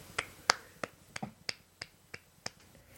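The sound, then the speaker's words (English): A quick run of light hand claps, about nine sharp claps in an even, brisk rhythm, fairly quiet, with no talking. “So I'm just going to give him a quick little clap for that.”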